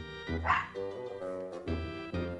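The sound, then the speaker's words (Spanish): A dog barks several times in close succession, deep and loud, with short woofing bursts that run into one another and no voices around. “No hace amistades a primera vista, pero es muy difícil que se muestre agresivo, aunque sí puedes soltarle algún ladrido.”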